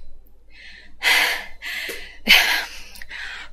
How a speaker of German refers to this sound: Eine Barbara unbekannte Frau lehnte sich an den reparierten Türrahmen und rang nach Luft. Das zusätzliche Gewicht ihrer Schwangerschaft machte ihr beim Treppensteigen erheblich zu schaffen.